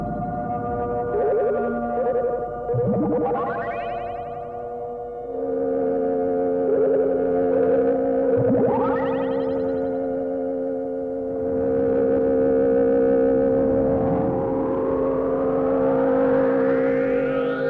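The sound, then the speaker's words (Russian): Early synthesized electronic music, the 'Klangstudie' (Sound Study), one of the first works from Eimert's experiments at Westdeutscher Rundfunk: steady buzzing drone tones layered together, broken by several swooping upward pitch glides, with a final slower, longer rising sweep. Loud and continuous, with no voices. “Кстати, мы сейчас слушаем одну из первых их работ «Клангштудие» или «Исследование звука».”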